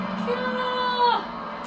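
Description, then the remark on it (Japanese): A single voice lets out a drawn-out, high-pitched shriek lasting about a second, mimicking a horror-film scream, then breaks off abruptly. It is fairly loud. “もうこのずっと悲鳴悲鳴のターンですここからキャー”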